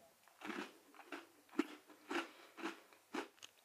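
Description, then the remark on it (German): Crisp crunching from someone alternately biting into two crunchy chocolate bars, one a Milk and Choc, to compare their crunchiness; about seven sharp bites and chews in a steady rhythm, with no talking. “Ich habe jetzt in beide mal abwechselnd reingebissen und hatte haptisch im Mund.”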